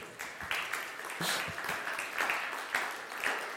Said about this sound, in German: Applaus, Applaus.